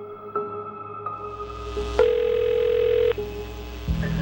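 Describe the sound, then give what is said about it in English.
A telephone call to Graysmith rings with electronic tones, a couple of short beeps and then one sustained ring, followed by a click as the call connects to an answering machine. No one speaks. “In one last effort, I called Graysmith by telephone to confirm his date of the Belli birthday call.”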